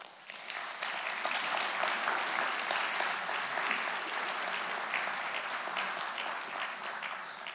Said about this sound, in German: Und ich darf äh, mit einem kleinen Applaus Sebastian nach vorne bitten.